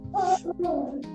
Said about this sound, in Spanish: Ah, era un perrito. Qué vierga, no, te mamaste no era tu mamá, güey. Parece que, que había hablado tu mamá, güey. mamá. Este pendejo, era un perro. era mi perro, güey.